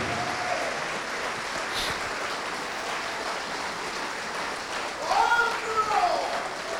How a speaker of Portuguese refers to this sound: Vamos aplaudir ao nome de Jesus. Obrigado.